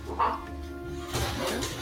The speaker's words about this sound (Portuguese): Eu sei, de repente que tem um gato e um cachorro brigando do lado da minha tomada, tá, gente?